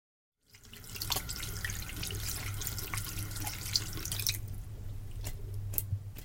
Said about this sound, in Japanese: 手洗いを済ませ、まず取り掛かることは、朝に洗った食器の片付け。